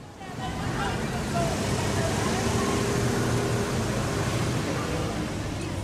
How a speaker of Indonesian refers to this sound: Piccadilly Circus, atau dekat jalanan belanja Oxford Street, ya bisa terlihat kemacetan di jam-jam sibuk. Dan karena macet, banyak pula pengemudi yang pindah-pindah jalur senaknya tanpa peduli pengemudi lain.